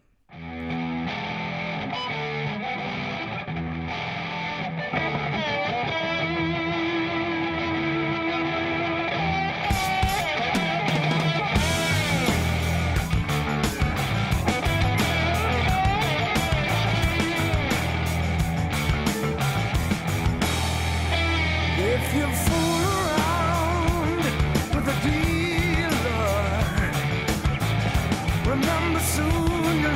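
A rock song plays throughout, opening with a sustained organ-like drone before drums and distorted electric guitar kick in around ten seconds, building into a loud, driving full-band rhythm with no talking.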